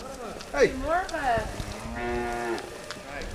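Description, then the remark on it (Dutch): Dairy cows moo on a dairy farmyard in Schermerhoorn, North Holland, Netherlands, several overlapping low, drawn-out calls rising and falling, with faint background noise between them. “Hier parkeer ik op een boerenerf waar dag in dag uit wordt gewerkt in de melkveehouderij.”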